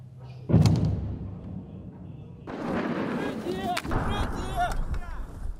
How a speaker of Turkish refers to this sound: Kiev yakınlarında Ukrayna ordusuyla birlikte hareket eden gazeteciler Rus topçu ateşini görüntüledi